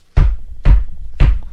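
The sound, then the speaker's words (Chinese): Three heavy, booming knocks by a hunter on the door of a house, evenly spaced about half a second apart, each a loud low thud with a short ringing decay. No voices are heard. “重重的敲门声，这下才把他们三个给吓到了。”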